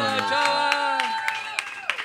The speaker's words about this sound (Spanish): ese aplauso para mi carnal.